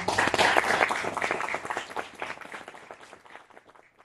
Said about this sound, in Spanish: Les pido por favor un fuerte aplauso para ella.